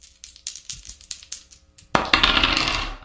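A die rattles and taps in a quick run of light clicks, then tumbles noisily across a hard tabletop in a louder, sustained clatter, with no talking.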